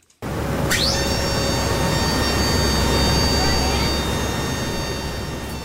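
Loud, steady roar of the turboprop engines of a search and rescue Hercules transport plane in flight over Dauphin Lake, a continuous droning hum with a brief rising whine near the start and no talking.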